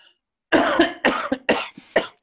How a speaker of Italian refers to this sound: ma ho preso un colpo di tosse, mi avete fatto emozionare.